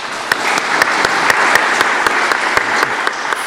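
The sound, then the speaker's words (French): A studio audience on a TV set in Dijon applauds the mayor of Dijon, François Repsamen: a dense wash of hand claps with sharp individual claps popping out, sustained at an even, fairly loud level throughout without any talking. “on est fier de l'avoir ici sur le plateau, c'est le maire de la ville, le maire de Dijon, François Repsamen. applaudissements.”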